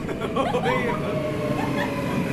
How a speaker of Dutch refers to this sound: Oh, daar komt de trein aan.